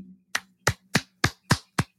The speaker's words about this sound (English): Slow clap for Ray J.